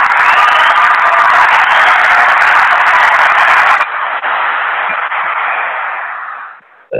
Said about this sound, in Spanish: Hacemos un aplauso porque en verdad me lo merezco hoy.